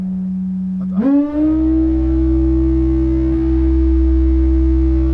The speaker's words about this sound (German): Das sind jetzt wahrscheinlich ganz viele verschiedene Feedback-Schleifen hintereinander.